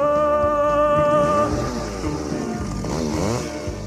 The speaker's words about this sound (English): Trees upon your house and your car cut them down, chop them up, cut them down, cut them chop them up, chainsaw, cut them up, chop them down, chop them down, cut them up, chop them down, cut them up, chainsaw.